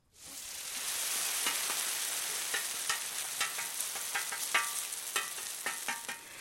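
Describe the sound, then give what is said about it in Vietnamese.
Steady sizzling of millet-flour pancakes with black bean filling frying in hot oil at a market, a dense crackling hiss with scattered sharp pops and spits throughout, no voices. “Đây là bánh chiên từ bột kiều mạch, đây là bánh rán từ bột kê có nhân đũa đen.”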